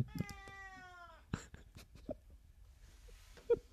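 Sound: cat meowing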